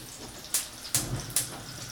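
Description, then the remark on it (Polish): Three glasses of water pour into a pot in three quick splashes, evenly spaced, over a steady low watery rush. Fairly quiet, with no one speaking. “Ten, tak, na dwie e, kostki rosołowe, które przyjdzie mi za chwilę rozpuścić w wodzie, daję 3 szklanki wody.”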